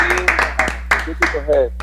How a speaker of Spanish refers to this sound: Aplauso para el grupo de ahora.